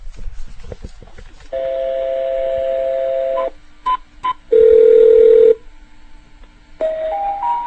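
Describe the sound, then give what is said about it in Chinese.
Telephone dialing tones with no talking, heard when calling in to the ITRI automated switchboard: a long steady tone, two quick beeps, another sustained lower tone, then a short run of stepped tones rising in pitch. “所以这样的话，你打进来的话，你就可以听到哈，类似下面的这样的一种声音。”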